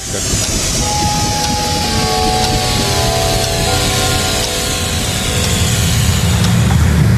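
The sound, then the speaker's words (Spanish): A vehicle accelerates with a loud, continuous engine roar over a heavy low rumble, with whining tones shifting throughout for about seven seconds. No one speaks. “Es que vamos a dar un pequeñito acelerón.”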